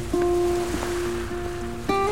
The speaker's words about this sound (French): elle continuait à courir dans le vent au bord de l'eau, en écoutant parfois le bruit des vagues de la grosse mer.